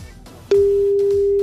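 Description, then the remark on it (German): A telephone ring tone sounds on the line as a call goes unanswered: after a brief stretch of low background noise, a loud, steady, single-pitched tone starts and holds unbroken to the end. “Aber das hat man jetzt echt so lange nicht mehr, dass keiner rangeht hier von den beiden.”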